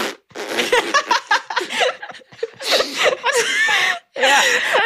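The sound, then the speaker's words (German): A voice imitates a vaginal fart with a series of sputtering, fart-like noises, broken into short bursts and mixed with giggling and snickers, with no silence between them. “manchmal reicht es auch schon, wenn du es zweimal machst und dann hast du diesen ja. Vaginalpups”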